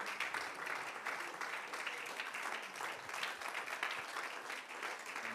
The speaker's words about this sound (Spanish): Si puedes aplaudirlo y decirle, gracias por tanto amor.